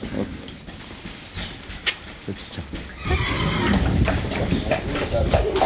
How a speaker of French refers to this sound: Je me fais aider par un champion olympique pour sceller hein. mon cheval. Quand même juste à grande place va sur la sangle.